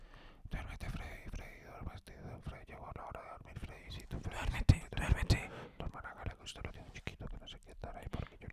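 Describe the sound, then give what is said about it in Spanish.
Soft whispering runs continuously, breathy and hushed with no voiced tone, the intimate murmur of ASMR-style speech, with a few slightly louder sibilant bursts midway. “cosas así como, como que le susurren, como que le digan,”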